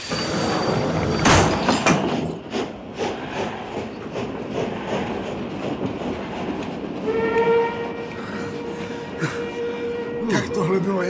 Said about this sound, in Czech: Uh, ještě, že ten vlak přijel.